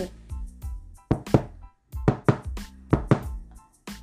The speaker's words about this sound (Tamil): அப்படின்னு யாரோ கதவை தட்டுற சத்தம் கண்ணை இப்படி இப்படி எல்லாம் தொடச்சிட்டு போய் யாருடா வந்திருக்கிறது அப்படின்னு திறந்து பார்த்தா அந்த ஆட்டுக்குட்டி ஒரு வாளி பால்ல நிறையா அதோட கழுத்தில் மாட்டிட்டு வந்து நிற்கிது